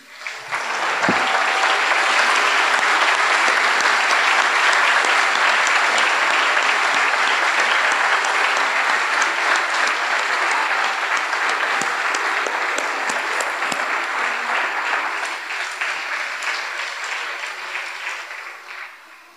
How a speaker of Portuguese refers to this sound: Vamos aplaudir a Jesus?